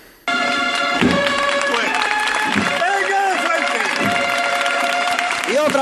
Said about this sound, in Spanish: A los sones del himno nacional. Y las palmas, la emoción. Se desborda en la Macarena. El señor de la sentencia otra vez está en la calle.